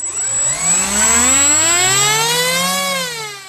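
A model airplane engine is started before takeoff, its whine climbing steadily in pitch over a few seconds before leveling into a loud, even buzz, with no voices.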